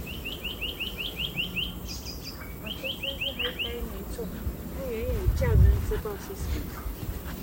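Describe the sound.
Birds sing in two quick runs of bright, high, evenly spaced chirps, separated by a short pause, with softer twittering and a lower warbling voice-like sound beneath.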